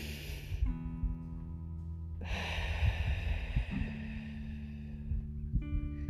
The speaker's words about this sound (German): Wenn es dir auch hilft, kannst du dich auch komplett äh, hinlegen und ähm, praktisch eine Entspannungsphase machen und da eben auch nochmal gezielt dann immer lang einatmen und auch wieder lang ausatmen